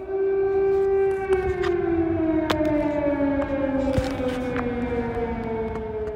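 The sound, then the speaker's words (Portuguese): An air raid siren sounding an alert in the morning wails steadily, its tone slowly sliding downward over several seconds, loud and sustained with no one speaking, while faint sharp clicks and knocks punctuate the background. “Quando acordei, soaram as sirenes.”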